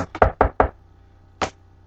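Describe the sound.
Sharp knocks on a door: a rapid cluster of about five raps, then a short pause and one last single knock, with no talking.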